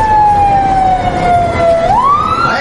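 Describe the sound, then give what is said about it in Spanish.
A police patrol car siren wails loudly, its tone sliding slowly downward before sweeping back up, with a low rumble of traffic underneath and no one talking. “Llegaron a, la, una patrulla y, y pues ya me, me quieren remitir.”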